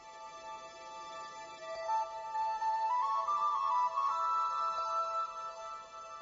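A soft instrumental folk tune plays on its own, with sustained reedy tones carrying a slow melody that climbs gently over a steady drone, at a moderate, even volume.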